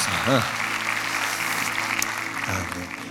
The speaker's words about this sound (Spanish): Por favor, un aplauso para los pastores de Millas están hoy con nosotros.